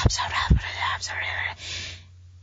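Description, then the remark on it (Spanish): A single voice mimics a crowd of overlapping whispers, a breathy, hissing murmur with soft bursts of air, rising and falling for about two seconds before fading out. “Y se escuchaba como si, si fuera una fiesta de susurros tipo”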